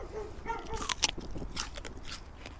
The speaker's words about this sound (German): In dem jungen Zustand, in dem die jetzt sind, kann man die abmachen und reinbeißen. Ist hohl, ist total saftig und schmeckt wie Rhabarber, wenn man Rhabarber roh essen könnte. Mal probieren.